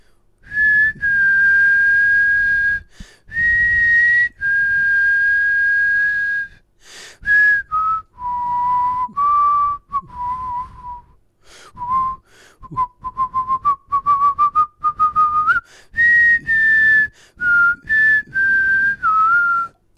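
A person whistles a melody alone, clear and close, with long held notes at first and then quicker, choppier phrases stepping up and down in pitch, like a TV theme tune.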